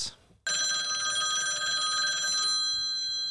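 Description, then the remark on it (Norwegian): A telephone rings loudly and steadily for about two seconds on an outgoing call after a brief quiet moment, its bright harmonic tone sustained, then cuts off, leaving faint background noise. “så du tenkte det kunne være greit å høre med noen som ikke var Viking-supporter, så du har ringt han òg, du.”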